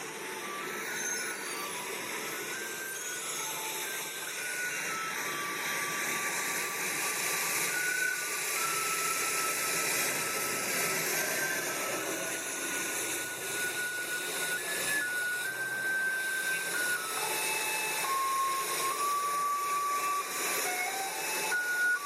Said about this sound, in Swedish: Denna spelar alltså kinesiska gatustädare dygnet runt, hela tiden. Eh, vi ska lyssna hur det kan låta i Shanghai.